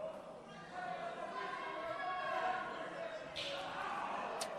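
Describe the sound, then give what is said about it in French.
A sharp, loud slap cracks out near the end over the steady murmur of a large crowd at a wrestling match, with a smaller smack just before it. “Vous avez entendu la claque?”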